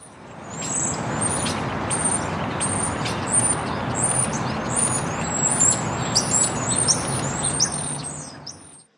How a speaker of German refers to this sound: Das sind aber keine heimischen Vögel hier vor Deutschland. Nee, aber auch keine marsianischen.